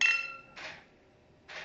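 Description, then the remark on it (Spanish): Wine glasses clink together in a toast over shared wine, leaving a bright ringing tone that fades within half a second, followed by two soft, brief clattering touches. Quiet, with no voices. “Creo que parte de lo que deberíamos hacer y es parte de lo parte del sonido, parte de, la experiencia, sensorial”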